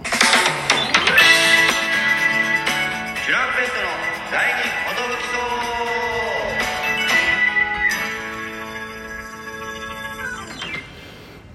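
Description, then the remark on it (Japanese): A bright brass-led radio jingle, a trumpet playing a short melodic fanfare with steady sustained notes over backing instruments, loud, with a brief spoken voice near the start. “すみませんあの早速ジングルの方行ってみようかと思います。トランペットの”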